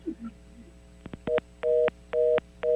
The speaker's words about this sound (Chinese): 现现在是他挂好电话就对了，是我被挂电话吗？我说你说民进党政绩都不错，我叫你讲一两个，大家分享一下，你就挂好电话啊？你不是跑去阳台的讯号比较好的吗？为为为什么要挂电话呢？